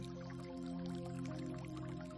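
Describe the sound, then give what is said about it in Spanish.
Quiet, steady dripping and trickling water, with small droplets falling in quick irregular succession over a soft continuous background hum, with no voices. “Vamos a imaginar que estamos a la orilla del mar o de un lago o de un río, escuchando el agua.”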